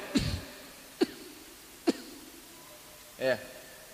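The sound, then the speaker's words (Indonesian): A person clears their throat with a few short, sharp ahems spaced about a second apart, then one longer voiced throat-clearing sound, with no talking in between, done while seated when feeling urine dribble. “Kemudian kalau duduknya sudah seperti yang sunnah tadi itu wayatamidu ala yasari kalau kerasa beser laki perempuan buat dehem”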